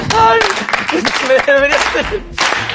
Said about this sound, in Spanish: ¿Te apetece aplaudir, más?